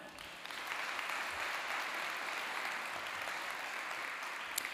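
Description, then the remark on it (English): A crowd claps steadily for several seconds, welcoming guest Chad Williams; a dense, even wash of applause that stays fairly loud throughout with no voices standing out. “Can we give a warm horizon welcome to Chad Williams?”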